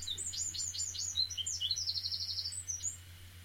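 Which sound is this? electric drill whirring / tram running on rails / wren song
wren song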